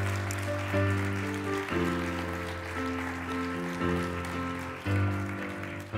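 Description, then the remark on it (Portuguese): A crowd claps for the Lord steadily for about six seconds, a dense, even patter of many hands, while sustained keyboard chords hold and shift underneath. No one speaks. “Aplauda mais ao Senhor.”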